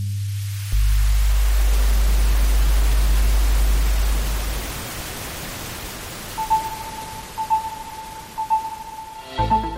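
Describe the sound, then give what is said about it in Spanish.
A deep, loud test tone hums steadily and drops lower in pitch as its frequency is gradually lowered to demonstrate the limits of human hearing, then gives way to a wash of hiss, with a faint higher tone pulsing near the end. “Y poco a poco te vas a dar cuenta, vamos a ir bajándole esa frecuencia, atento, para que tú, en tu casa, en el coche, a través de la radio, a través de los auriculares del móvil o a través del ordenador, puedas ir percibiéndolo.”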